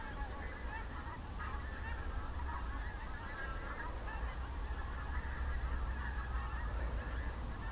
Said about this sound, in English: The clouds are moving really fast and the geese are flying against the wind.